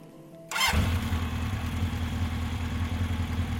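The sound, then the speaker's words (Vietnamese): A motorbike engine is started by a man: it cranks and catches after a brief quiet moment, then settles into a steady, throaty idle with a low rhythmic rumble. “Anh rể nổ máy”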